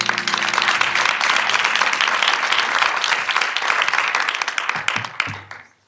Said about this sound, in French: Cher public d'Encore Heureux, merci d'applaudir